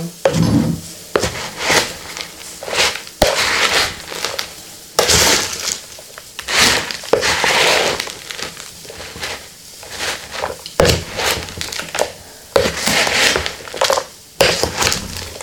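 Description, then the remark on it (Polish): Salad ingredients are tossed and stirred in a bowl, giving a steady run of crunchy, rustling scrapes and soft clatters with brief pauses between strokes, no voices. “a ja wymieszam sałatkę w międzyczasie, te produkty, które już są.”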